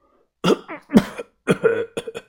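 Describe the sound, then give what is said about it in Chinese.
The gang leader coughs hard and harshly several times, loud rasping bursts with throaty, voiced tails, separated by short gaps, with no talking around them. “把头猛烈的咳嗽了两声，推测的说道。”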